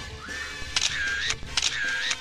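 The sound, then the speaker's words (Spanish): A camera takes two photos of a guest in quick succession, each a crisp shutter click paired with a brief whistling electronic tone that rises and falls. No one speaks. “Tenemos que tomar una pinche foto, güey.”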